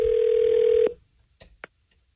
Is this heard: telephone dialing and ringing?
yes